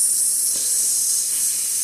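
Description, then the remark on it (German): A long, steady hissing "sss" made by a voice as a cue telling a horse to slow down gradually, down to a stop and backing up, until the sound ends; held continuously for about two seconds at an even, fairly loud level with no other talk. “ertönt, werde ich immer langsamer, langsamer, langsamer, langsamer, langsamer, langsamer, langsamer bis zum Shop, bis zum Rückwärts, bis dieses Geräusch eben endet.”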